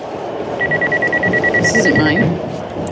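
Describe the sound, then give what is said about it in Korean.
A mobile phone ringtone in a scene from the film Ocean's Eleven: a steady, rapidly pulsing electronic tone rings for a second or two over a noisy background of crowd bustle and murmuring voices, as people leave a stadium during a sudden blackout. “바로 그때 어디선가 휴대폰 벨소리가 들리죠.”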